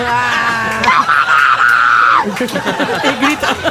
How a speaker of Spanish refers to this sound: El grito del final fue del camarero.